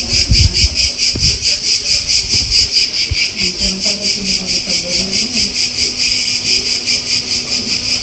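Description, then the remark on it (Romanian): A dense, shrill chorus of cicadas in Greece throbbing steadily in a fast pulsing rhythm, loud and continuous throughout, with faint low rumbling underneath. “Un zgomot de cicade, înțeleg.”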